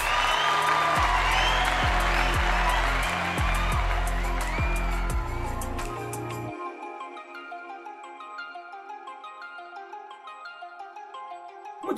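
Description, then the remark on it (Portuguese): A burst of crowd applause with a few whoops over a thumping beat fills the first half, then fades into a light, chiming melody that plays on alone. “Terminamos com essa pergunta e nosso episódio acaba now. Palmas!”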